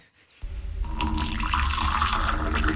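After a brief moment of quiet, hot water is poured in a steady, continuous stream, fairly loud, with a full splashing, filling sound that holds to the end.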